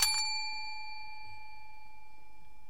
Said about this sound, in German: Das ist die Glocke. Und was leitet die Glocke ein?